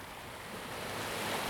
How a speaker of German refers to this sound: Dein Blick wandert zu dem sanft rauschenden Meer, das in den intensivsten und schönsten Türkisfarben leuchtet, die du je gesehen hast. Die milde Brandung scheint zu raunen Komm zu mir.